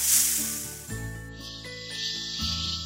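A snake's hiss rises as a sharp, airy burst, fades, then returns in a longer second stretch, all layered over steady tonal background music with no voices.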